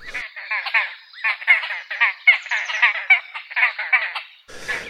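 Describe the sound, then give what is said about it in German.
A bird calls in a steady run of harsh, chattering phrases, each a quick rhythmic burst in a mid-to-high pitch, repeated almost without pause for several seconds, with no voices. “Ja, es ist fast schon ein Wunder, dass dieser Vogel, der Vogel der Woche, hier noch nie aufgetaucht ist.”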